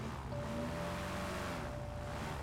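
A small airboat's engine and propeller roar steadily as it races across marshes over clumps of sawgrass and around stands of cypress, a thick continuous drone with a faint whining tone over rushing wind and water noise, unbroken throughout.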